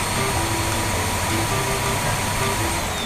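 A vacuum cleaner runs steadily and loudly throughout, a constant whooshing motor roar with a low hum underneath and no pauses or voices.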